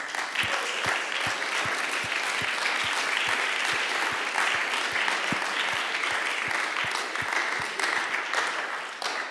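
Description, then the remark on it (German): A sustained round of audience applause at a worship gathering, for those present who are not Swiss, dense and steady for several seconds with a few sharper claps punching through, fairly loud, no voices over it. “Hey, geben wir ihnen doch einen Applaus.”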